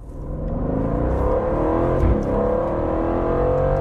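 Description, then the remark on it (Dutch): An Aston Martin Vantage car engine revs and climbs in pitch, its deep rumble rising steadily and staying loud throughout, with no one talking. “We stuurden Wouter op pad met de Aston Martin Vantage.”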